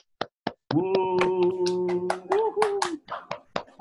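Brief, close applause: a quick burst of irregular hand claps with a sustained voiced whoop or cheer held through the middle, the claps continuing sharply before and after it.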